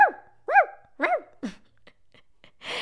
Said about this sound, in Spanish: ¿Cómo se llama el sonido que hacen los perros? ¿Es el ladrado, es el ladrido o es el ladraje?